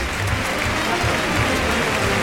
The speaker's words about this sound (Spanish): Y a Morante que le van a pegar una ovación, supongo. Ahí está. Morante de la Puebla que va a salir a saludar esta ovación que oye.